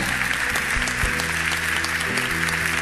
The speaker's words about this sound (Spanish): Demos un aplauso a nuestro Señor.